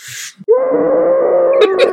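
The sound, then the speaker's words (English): A person vocally imitates a long, sustained scream: after a short breathy intake, one steady wailing tone holds for about a second and a half, loud and unbroken, ending with a slight waver. “scream. Yeah, it's just like probably one long like”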